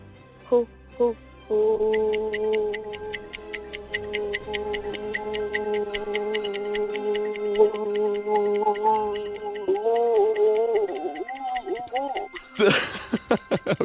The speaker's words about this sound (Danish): …, vores lytter, har haft rekorden i Danmarks længste ho i meget lang tid nu